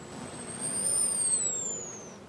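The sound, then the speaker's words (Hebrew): A single high, thin hummingbird whistle holds steady, then slides gently downward for about two seconds, clear, over a soft low rumble in the background, played from a recorded file. “הנה, די.ג'יי מקלר מנגן את השריקה של אה, יונק הדבש.”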